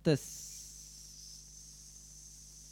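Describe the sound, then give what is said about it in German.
A person hisses like a snake, a long, steady breathy hiss lasting a few seconds after a brief voiced sound at the start, moderately loud. “Bist du ein Schlange?”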